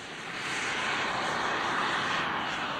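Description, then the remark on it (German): The small jet turbine on top of the fuselage of a remote-controlled model aircraft fitted with extremely slender, glider-like wings roars with a steady, high-pitched whine that swells within the first moments and holds loud as the aircraft sets off on the runway and takes off. No voices. “Die Maschine setzt sich in Bewegung und hebt ab.”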